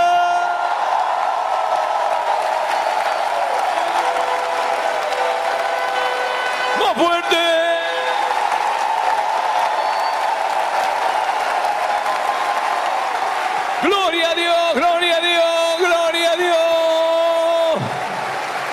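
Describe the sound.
An audience applauds steadily and loudly to the glory of God while entering the year 2020, with voices shouting over the clapping; a brief call rings out midway, and a long sustained cry near the end stops abruptly.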